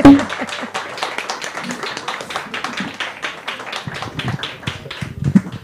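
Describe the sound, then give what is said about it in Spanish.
A small audience applauds steadily for several seconds at a literary event with writer Diamela Altit, a dense, even patter of overlapping hand claps at moderate volume with a faint murmur of voices underneath. “Estoy súper contenta, así que yo creo que por lo menos un abrazo para la Diamela, o un abrazo mío y, un aplauso para ustedes.”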